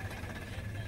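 The engine of a vehicle like a four-wheeler runs with a steady, low, throbbing drone, holding an even level throughout the short moment, with no voices. A soldier rides it with another soldier through a large mud puddle in the desert in Kuwait, filmed on a cell phone video.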